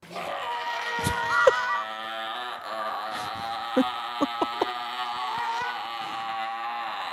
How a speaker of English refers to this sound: we've found some actual record, an actual audio recording of a seal